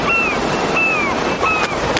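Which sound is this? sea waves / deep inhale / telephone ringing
sea waves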